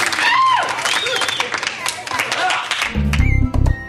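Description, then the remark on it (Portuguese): A crowd bursts into dense, steady applause, many hands clapping at once with a few high cheers or whistles mixed in, before it cuts off and low music begins. “Sim, todos esses cientistas merecem muitas, muitas palmas.”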